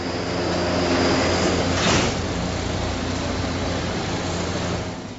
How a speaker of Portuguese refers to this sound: A composição parou na estação seguinte e abriu as portas.